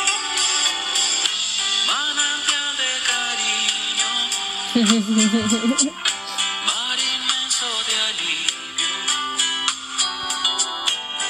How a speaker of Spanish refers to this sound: Yo sé que me, me, están poniendo a mí esas canciones. Qué bonito, qué bonito escuchar mi voz. Fíjate que esa nunca la había escuchado.